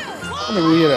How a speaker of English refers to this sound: These are the sounds of women's curling. Oh, these are the sounds of curling? Okay. Yeah. This is this is what this sounds like down in the ice. They're sweeping hard. Sounds like a Mexican restaurant or the AVNs.